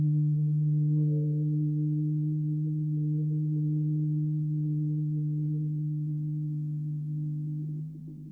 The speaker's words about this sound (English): That's just deep breathing and the repeated audible sound out of your mouth. Find one that sounds good and feels good. Um, you can play with the pitch and the tonality, and the volume and the sound and see which one feels best for where you are.